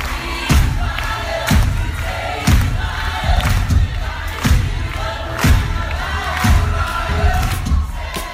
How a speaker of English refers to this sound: 这是百老汇的掌声雷动